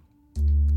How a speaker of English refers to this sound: and then the Buchla samples of the sine wave a bit lower.